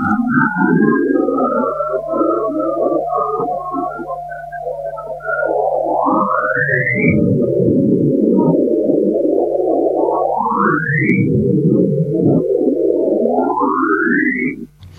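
Sonified Saturn radio emission captured by the Cassini spacecraft, from waves propagating along the magnetic field: a dense, warbling electronic drone with three upward-sweeping whistles at steady intervals, loud and continuous, with no voices.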